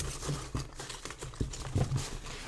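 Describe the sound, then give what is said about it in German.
Rustling and crinkling of packaging as someone rummages through a box containing miniatures, with irregular scraping and bumping bursts over a couple of seconds and no talking. “Und ich muss noch ein bisschen mehr kramen, weil wir wollen ja eigentlich ganz was anderes haben.”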